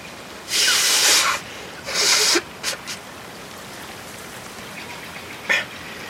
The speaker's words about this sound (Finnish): Kuuntele. Kuuletko? kuuluu sateen ääni, mutta en näe pisaraakaan. Täällä puut ovat niin korkeita ja latvat ovat niin tiheät, että kestää ainakin 10 minuuttia ennen kuin täällä maanpinnalla alkaa sataa.